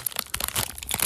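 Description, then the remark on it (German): Crisp crinkling of the plastic wrapper of a Kinder Country bar, a rapid run of sharp rustles and crackles lasting about a second with no one talking. “Das ist die Verpackung. Die hört sich so an.”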